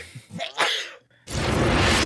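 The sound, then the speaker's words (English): A voice imitates a sneeze: a short breathy build-up, a brief pause, then a loud, hissing burst of air held for nearly a second, with no other talking. “He literally just like sneezes and looks out the window, and then we smash cut back.”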